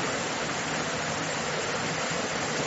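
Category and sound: nature, heavy rain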